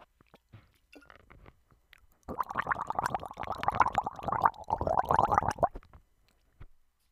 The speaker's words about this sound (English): So let me drink water. I haven't drank anything yet. You know, I'm going to gargle cuz this podcast already feels boring.